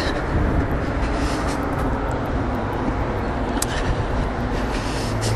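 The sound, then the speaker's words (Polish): A steady, continuous rumble of cars driving past on a road beside the recordist on a windy day, with low droning tire and engine noise and faint hissing swells, and no voices. “Dobra, tutaj nic nie jedzie, to znaczy jadą samochody, ale ja jestem obok.”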